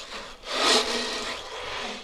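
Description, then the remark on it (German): A drum filled with small grains is shaken by a birthday party guest at Haus zum Gugger to imitate wind and rain, making a continuous rushing, hissing rustle that swells loudly early on, then settles into a steady softer wash. No voices. “Die Partygäste bilden nämlich zusammen ein Geburtstagsorchester mit Gitarre, Cello und einer Trommel, die mit kleinen Körnchen gefüllt ist. Und was macht man mit der? Den Wind und den Regen.”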